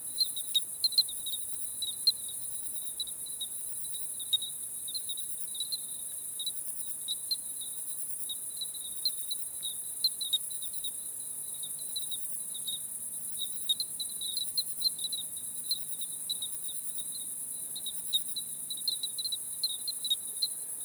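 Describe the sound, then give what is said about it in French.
The calling song of a cricket (Eugryllodes pipiens) at 11:05 pm, air temperature about 22-23 °C: rapid, evenly pulsed high chirps repeat steadily throughout, clear over a constant high insect hiss, with a faint low hum drifting in midway. “aujourd'hui il a le nom de grillon titanabulant, et son nom latin est Eugridiodes pipiens”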